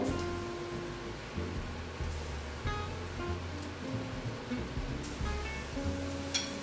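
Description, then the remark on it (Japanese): Steady, dense sizzling of food deep-frying in hot oil until golden brown, a continuous crackling hiss with scattered sharper pops, with a faint low hum running underneath. “低すぎる温度で揚げないように気をつけましょうではフライしていきます”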